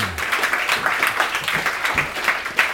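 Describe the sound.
A live audience produces a dense, continuous crackling hiss as improvised Foley, many voices imitating the sizzle of an egg frying in a pan, steady and fairly loud with scattered sharper pops throughout.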